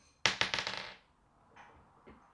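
A twenty-sided die, rolled for a bow-and-arrow action in a tabletop game, clatters across a hard tabletop in a quick burst of rattling bounces that fade within a second, followed by a couple of faint, softer knocks.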